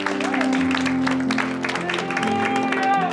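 An audience at an evening church service applauding the Lord, with dense, steady clapping that stays loud for the whole stretch. Sustained musical tones and scattered voices run underneath the applause.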